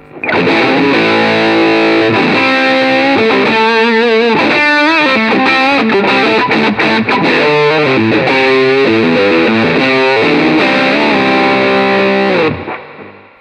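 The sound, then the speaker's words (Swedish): An electric guitar played through a fuzz pedal, heavily distorted and loud, with sustained saturated chords and bending note runs ringing for about twelve seconds before stopping abruptly. No talking. “gillar ju den, eh, den här typen av fuss som låter nästan mer distortion.”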